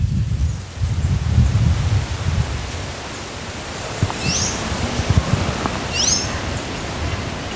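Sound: forest ambience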